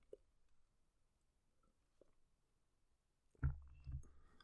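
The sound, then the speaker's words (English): Quiet mouth sounds of someone sipping water: faint wet clicks, then two louder swallowing gulps near the end, with no talking. “Either way, let me get a sip of water.”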